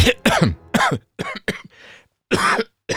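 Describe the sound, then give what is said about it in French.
A loud series of harsh coughs and throat clearing in quick bursts from a speaker with a frog in the throat, around six or seven rough expulsions with short gaps and a breathy rasp between them, no talking. “Pardon. Excusez-moi, j'avais un, chat dans la gorge.”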